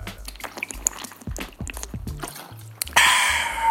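Liquid sounds of mineral water being poured or swallowed, with soft gulping pulses and dribbles, ending in a brief bright fizzy rush near the end.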